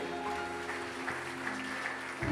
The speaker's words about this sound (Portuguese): Você pode dar uma salva de palmas ao nosso Deus?